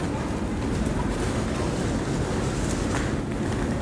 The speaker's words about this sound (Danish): Er I med? Så er vi inde i toget. Det ligner jo sådan et fra gamle dage.